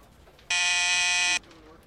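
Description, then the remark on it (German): A single steady electronic buzz from the office intercom of Nintendo president Hiroshi Yamauchi at Nintendo headquarters in Kyoto, January 1997, loud and bright with stacked harmonics, lasting just under a second before cutting off abruptly into a faint background hush. “Die Gegensprechanlage im Büro von Nintendo-Chef Hiroshi Yamauchi summt.”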